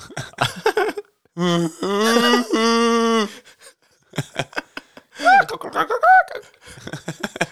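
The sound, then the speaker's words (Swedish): A person imitates a roe deer call with a few loud, drawn-out, strained bleating cries, with bursts of speech before and after. “det är så att rådjur låter.”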